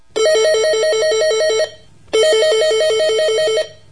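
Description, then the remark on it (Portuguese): A telephone rings twice on a Sunday afternoon, each burst a rapid warbling trill about one and a half seconds long, separated by a short pause. Loud, with no voices. “Restava-lhe o consolo de falar com os filhos por telefone de vez em quando, certa tarde de domingo.”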